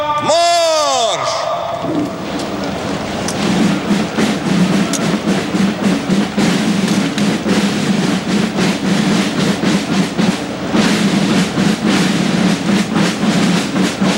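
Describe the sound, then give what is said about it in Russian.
Troops march in formation in a military parade on Red Square, led by parade commander General of the Army Oleg Salyukov, their boots striking in steady unison as a dense, rhythmic crunch that carries on throughout, preceded by a brief echoing shouted command. “Торжественное шествие войск возглавляет командующий военным парадом генерал армии Олег Салюков”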